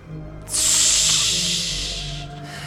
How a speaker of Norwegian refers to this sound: Ja, det damper godt fra deg uh, når du eh, kjøler deg ned med vannet. Å, helvete så varm den rustningen blei.